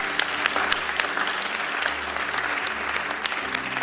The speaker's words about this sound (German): Give the Lord Almighty. Gib dem Herrn einen Applaus.